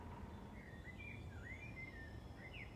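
Birds sing outdoors, soft, their clear whistled phrases rising and falling over a steady low hiss of background noise. Nobody speaks.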